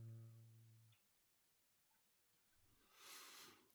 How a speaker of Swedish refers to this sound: Här hör vi hur det tänks och det smattras på tangentbordet.